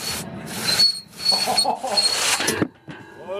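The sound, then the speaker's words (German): A hand saw rasps through wood in about five back-and-forth strokes, fairly loud, with thin high squeals cutting through each stroke before a short pause. “Die Geräusche machen auf jeden Fall schon mal Zahnschmerzen. Ja, also das war ein unangenehmes Quietschen”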